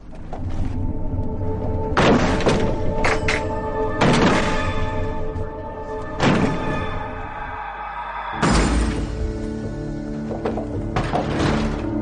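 Heavy, booming thuds strike a large wooden double-leaf door, like the gates of Roman cities, at roughly two-second intervals, each impact loud, followed by creaking and rattling of the strained timber between blows.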